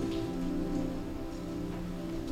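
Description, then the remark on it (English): Soft, scattered rustling of Bible pages being turned to the Book of Job during a church sermon, several overlapping and continuous, heard faintly over a steady low room hum with no one talking. “I hear some pages turning.”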